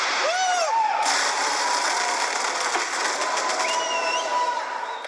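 Whirring, hissing pyrotechnics in an art installation: small lights ignite and race diagonally upward along steel cables, sometimes fast on several tracks at once, as smoke rises. A loud, steady rush of hiss with swooping whistles rising and falling, crackly rattling mixed in, sustained throughout.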